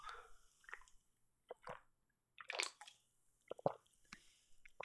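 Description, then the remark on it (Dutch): Quiet slurping of bubble milk tea from a can, drawn through a straw, with several short wet sucking bursts and squishy gulps separated by brief pauses. “Ik ben nog niet de bubbeltjes tegengekomen, maar die kom ik zo vanzelf tegen, denk ik. Ik eh, drink nog even een slokje door.”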